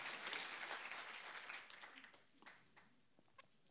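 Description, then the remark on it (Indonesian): A crowd applauds for God with dense, steady clapping that fades over a few seconds, leaving scattered claps at the end. “Boleh tepuk tangan kita buat Tuhan. Tepuk tangan kita buat Tuhan.”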